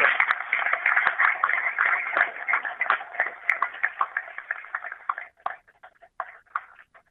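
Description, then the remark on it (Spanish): An audience at a political event in Avellaneda breaks into steady applause after the announcement of Gonzalo Braidón as the ruling party's mayoral candidate, a dense crackle of many hands clapping together that gradually thins out into scattered, separate claps before dying away. “Un aplauso.”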